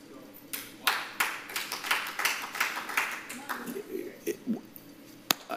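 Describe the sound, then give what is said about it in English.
Soft, polite golf clapping from a few people, a quick scattered patter that lasts a few seconds and then thins out, with faint murmuring voices underneath and one sharp tap at the end. “It, it, it's, it's a golf clap because our, we're holding on to our security blankets.”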